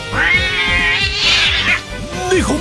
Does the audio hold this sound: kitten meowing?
yes